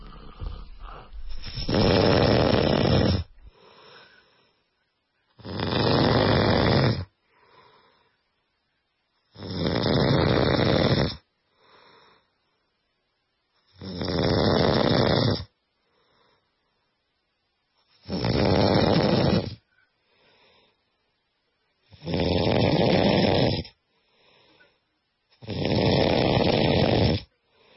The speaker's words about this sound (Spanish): Ella tiene que usar tapones para dormir porque ronca tan fuerte que hasta los perros de su casa se ponen a aullar